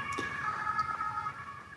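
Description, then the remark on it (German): A fire engine siren sounds a steady, high, slightly wavering wail, heard alone with no talking, holding at a moderate level over this short stretch. “vier schon wieder Feuerwehr.”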